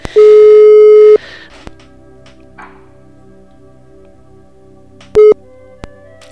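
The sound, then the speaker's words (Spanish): A telephone busy tone after a call is hung up: a loud, steady beep lasting about a second, a quiet pause, then a brief second beep near the end. No one speaks. “Voy a cortar para que así vea que es que si no va a pensar que está hablando en directo y, va, a hablar todo.”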